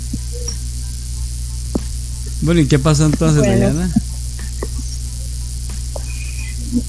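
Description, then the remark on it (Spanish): Rain falls in a steady, even hiss throughout, with a low hum beneath it. A voice briefly speaks over it partway through. “Está está lloviendo.”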